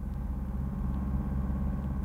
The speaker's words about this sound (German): Ich kam erst richtig zur Besinnung, als ich schon drin saß und der Wagen die Rampe hinauf in den Straßenverkehr rollte.